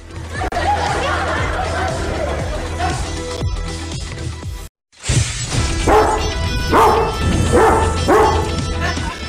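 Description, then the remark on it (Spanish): A dog barks loudly several times in quick succession, after a brief silent gap, over a dense, noisy background of clatter and indistinct chatter. “Se te salió el perro antes.”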